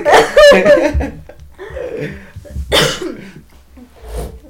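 coughing fit

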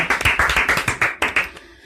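applause

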